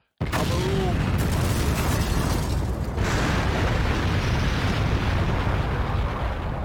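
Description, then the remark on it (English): A ship explodes in a massive fireball: the blast erupts suddenly and then rumbles on as a loud, sustained roar of deep, crackling noise, with a brief higher whine near the start. “The ship explodes in a massive fireball, which mushrooms up and out, singeing the plane.”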